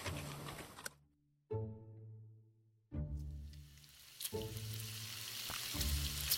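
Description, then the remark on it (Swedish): Pork sizzles loudly in a frying pan, a steady hissing crackle that stops briefly and returns. Low humming tones sound beneath it. No one speaks. “Och då var det det att min brandman satte igång och tjuta på grund av att jag stekte fläsk.”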